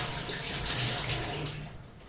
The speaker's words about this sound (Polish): W tej chwili umyję sobie ręce